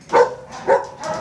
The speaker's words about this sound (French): Là, c'est un chien par cage, c'est ça C'est un chien par box, c'est ça.